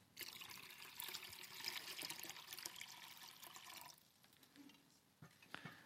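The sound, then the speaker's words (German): Water pours steadily into a basin for washing feet for about four seconds, a bright splashing rush, then tapers to softer trickles and a few drips and light knocks near the end. “Und er gießt Wasser in ein Becken.”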